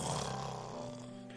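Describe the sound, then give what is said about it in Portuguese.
A single drawn-out, raspy snort from a voice imitating Jesus snoring asleep in the hold of a sinking ship, fairly loud, rumbling steadily for just over a second with no talking around it. “Jesus estava lá no porão fazendo o quê? Dormindo, babando, roncando.”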